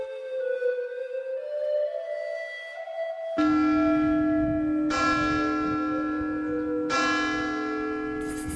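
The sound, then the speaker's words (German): Church bells in a hilltop church in Beaumont ring out loudly, with heavy strikes at steady intervals layered over a rich, lingering hum of overlapping tones. A softer chiming precedes the first big strike. “Glocken in der Kirche auf der Anhöhe scheinen die einzigen Bewohner zu sein.”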